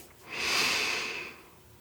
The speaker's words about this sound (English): I'd like to invite you to begin breathing in through your nose. So let's take a slow breath in